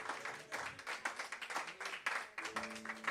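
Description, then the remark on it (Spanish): A crowd applauds the Lord during a sermon, steadily for about three seconds, many overlapping claps forming a dense, crackling wash, with a few voices calling out faintly beneath it. “Alguien que lo crea y que le dé un aplauso al Señor fuerte y le diga, Señor, este va a ser mi nueva dieta.”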